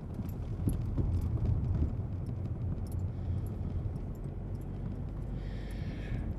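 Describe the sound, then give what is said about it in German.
A car rolls steadily over cobblestone pavement, its tires producing a continuous low rumble full of rapid, uneven bumps and knocks, heard from inside the vehicle with no talking. “So, jetzt möge mir bitte kein Bus entgegenkommen. Das wäre total töfte, wäre das. Kopfsteinpflaster.”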